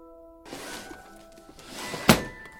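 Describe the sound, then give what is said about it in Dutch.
A drawer of a cabinet full of Dutch-language songs slides open with a rough, rushing scrape lasting a second or so, then stops with one sharp, solid thunk. No one speaks. “Even kijken hoor, deze laar is er Deze hele kast staat vol met liedjes, Nederlandstalige eh, liedjes.”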